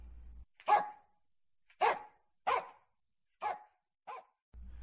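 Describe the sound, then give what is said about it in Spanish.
A hunting dog named Canela bays on the trail after the dogs pick up the scent, running up the high ground. It gives five loud, drawn-out barks spaced irregularly across a few seconds, each one full and resonant, with silence between them and no voices. “Yo conozco el latido de la canela. Allá van, por el alto. Levantaron la huella.”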